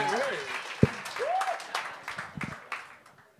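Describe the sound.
Audience applause, a dense wash of many hands clapping with whoops and cheering voices rising over it, gradually thinning out and fading near the end.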